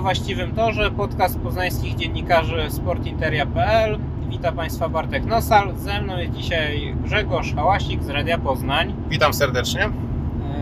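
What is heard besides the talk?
car interior road noise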